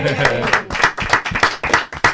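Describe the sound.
Steady, rhythmic hand clapping, about eight or nine sharp claps in quick succession, close and fairly loud, with a voice sounding faintly underneath.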